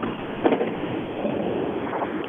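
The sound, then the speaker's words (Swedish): A rally car's engine sputters and rumbles as it pulls away, a steady rough mechanical drone with a brief louder burst near the start. No one speaks. “ja han tyckte det här var kanon, men hans bil eh, lät inte alls det bra nu när den puttrade iväg faktiskt.”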